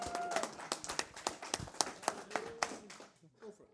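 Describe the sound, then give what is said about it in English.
A round of applause from a small group on the Song School Show, with many quick, sharp hand claps overlapping in an irregular patter that thins out toward the end, alongside some faint voices. “Let's get a round of applause first. Big round of applause.”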